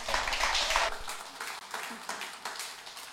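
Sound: audience applause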